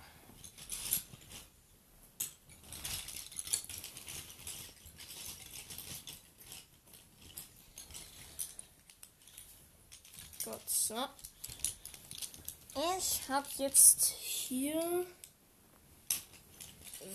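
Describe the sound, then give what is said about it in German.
Pens being packed back into a pencil case, with light plastic clicks, taps and rustling scattered throughout, while a person talks intermittently. “so, einmal mein Stift hier wieder reingepackt.”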